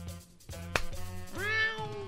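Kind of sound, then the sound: animal, cat meowing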